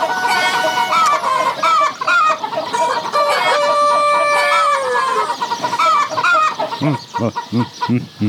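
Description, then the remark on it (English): A flock of chickens clucks and squawks continuously as they are fed, with a rooster crowing in drawn-out calls through the middle, ending in a run of short, rhythmic clucks. “That's how I feed my chickens every day.”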